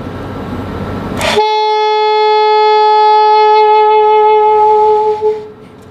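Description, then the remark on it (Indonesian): After a brief burst of background noise, a saxophone sounds one steady, loud sustained note, an F, played with the middle and ring fingers lifted, held for about four seconds before it stops. “Oke, itu F ya.”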